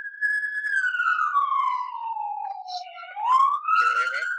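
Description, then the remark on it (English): A loud police siren wails on the street, its tone gliding slowly downward and then sweeping back up, sustained through the whole stretch with no break. “No, because there's a giant siren in the background.”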